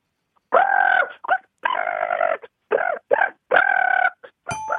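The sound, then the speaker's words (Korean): Someone imitates the cooing of a common pigeon with a run of about six warbling, throaty coos of uneven length, fairly loud, with short pauses between them. “비둘기 구구 소리 한번 내보도록 할게요.”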